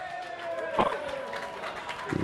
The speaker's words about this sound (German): Ja, verhaltener äh, Beifall, weil sie vielleicht noch nicht ganz richtig begriffen haben, was das bedeutet